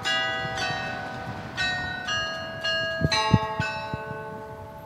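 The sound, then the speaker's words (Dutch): Church bells in Lourdes op de Bergen play the 30-second hourly chime, heard also at night, in a series of overlapping strikes, each with a bright metallic onset and long ringing harmonics, with a few low thuds near the end. “Horen we dit elk uur? Ja, en eh, daar gaat het natuurlijk om, want je hoort het ook s'nachts.”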